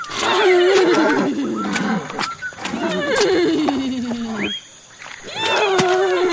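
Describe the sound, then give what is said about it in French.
A small prehistoric horse, a pregnant female Eurohippus, calls the male, giving several loud, drawn-out whinnies that slide downward in pitch, separated by short pauses. “Ces hennissements sont aussi pour votre bébé Non, j'appelle le géniteur parce que je sens que mon junior ne va pas tarder à pointer le bout de son museau.”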